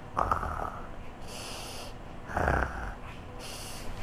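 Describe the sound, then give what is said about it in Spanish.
A voice mimics loud snoring: a few rhythmic, rasping snorts alternating with airy, hissing exhales, fairly loud, with no talking. “Entonces ellas se, se hicieron las dormidas en su cama. Roncaban muy alto.”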